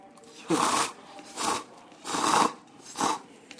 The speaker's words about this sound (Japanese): このさ噛んでる音ってさどうなんやろな気持ち悪ないんかなえでもちょっと聞こえづらいからいつもよりくちゃくちゃ食うべきやで、俺でも結構くちゃくちゃなってるって言われんねん